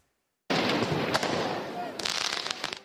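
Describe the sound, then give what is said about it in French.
A loud burst of firework mortar shots fired at police at Place Bellecour in Lyon during urban violence after the French team's defeat in a match, starting abruptly, with one sharp crack early on and a rapid, crackling cluster of bangs toward the end, over a continuous roar of crowd noise. “Des tirs de mortier, des jets de projectiles sur les forces de l'ordre.”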